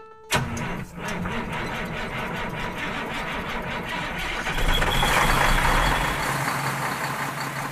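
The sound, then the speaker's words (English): A large truck engine cranks and starts, then settles into a loud, steady diesel rumble that swells briefly as it revs before continuing to run, with no talking; the truck is heading to Atlanta. “Remember, this is a road trip, so hop up here in the cab because we're heading to Atlanta.”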